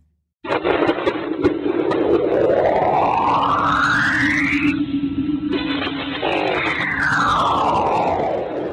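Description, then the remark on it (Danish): Magnetic field measurements around Saturn's moon Enceladus, taken by NASA's Cassini space probe and turned into sound: an eerie electronic drone with rising and falling whistling tones that sweep up and down repeatedly over a steady buzzing hum, loud and continuous, with no voices. “Det her er lyden af magnetfeltet omkring Saturns måne Enceladus, eller det er sådan set målingerne fra NASA's rumsonde Cassini, som er blevet forvandlet til lyd.”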